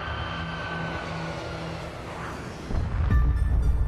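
A car engine hums steadily amid traffic noise, then revs up into a louder, deeper roar near the end. Continuous, with no voices.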